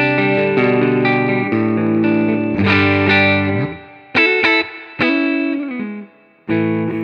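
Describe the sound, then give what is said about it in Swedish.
An electric guitar played through its neck pickup, with a bright, single-coil-like tone, plays sustained, slightly driven chords with a chorus-like shimmer, ringing out and then struck again three times after short gaps, with no talking. “Alltså jag vet inte om det är, jag tror det är kombinationen gitarr och eh, mick här, men det, det låter väldigt singelcoiligt här alltså.”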